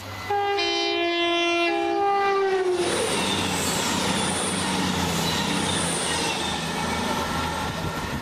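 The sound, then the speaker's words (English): A train roars past at very close range, its horn blaring a long harmonic blast before giving way to a loud, sustained rumble and rattle of wheels on the rails. “Yes, it's um, it's it's mere mere millimeters from the nearest train. Yes, I, I had noticed that last time it went past.”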